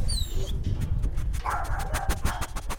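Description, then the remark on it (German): A dog whimpers: thin, high-pitched whines fall away at the start, then a softer, drawn-out whine follows over a low, rumbling background. “piep mal ein bisschen.”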